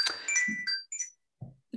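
An alarm clock ringing: a short, bright electronic melody of several high tonal notes at shifting pitches, with a few low, dull bursts underneath and no talking.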